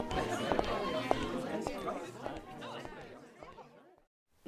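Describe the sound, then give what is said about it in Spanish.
A murmur of several voices chatting in the morning, with sharp footsteps tapping through it as someone walks away; the sounds gradually fade, ending in near silence. “escuchando los pasos que cada vez se alejan más, al mismo tiempo que escucha las voces conversando el afán de la mañana.”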